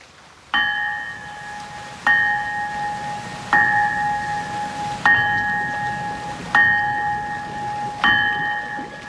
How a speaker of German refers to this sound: man hat versuchsweise mal die eisernen Glocken hier gegossen, aber der Klang ist kein schöner im Vergleich zu den heutigen Bronze- und Stahlglocken